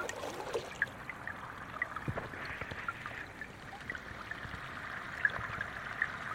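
flowing river water

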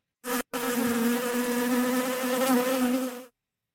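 bee buzzing sound effect

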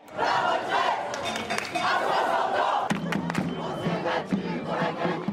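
protest crowd chanting slogans

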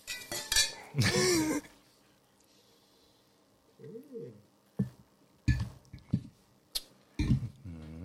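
wine glasses clinking

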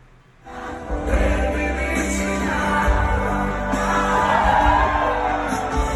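concert recording

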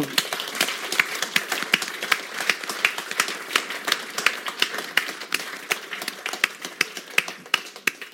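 audience clapping

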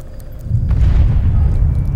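large bomb explosion

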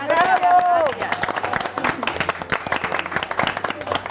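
applause

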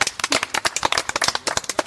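hand clapping applause

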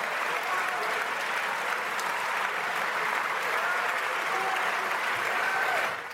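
parliament members applauding

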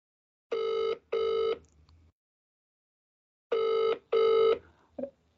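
phone ringing on speakerphone

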